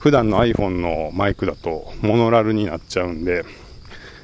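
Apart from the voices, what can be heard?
insects chirping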